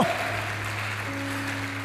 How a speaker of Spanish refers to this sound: ¿Cuántos dicen amén? ¿Cuántos dicen amén? Dele fuerte ese aplauso al Señor.